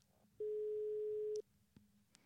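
A single steady telephone ringback tone of a call from a radio studio to Solveig Kloppen sounds for about one second, a clean loud hum over a faint background, then drops away as the line keeps ringing.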